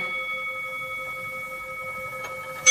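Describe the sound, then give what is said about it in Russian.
A clock strikes eleven o'clock, ringing out with steady, sustained metallic chime tones over a quiet background, followed near the end by a sharper tick and the start of another strike. “Одиннадцать часов. Поздно.”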